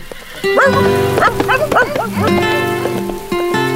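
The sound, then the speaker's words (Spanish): A dog barks in a quick series of short, yappy bursts over a steady background of sustained musical tones. “¡Véngase mi perro!”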